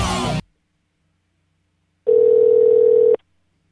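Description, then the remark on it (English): A Skype call ringing tone: one steady, loud electronic tone held for about a second, following a short burst of noise and a pause of silence. “I'm calling you via Skype because because I'm recording this conversation.”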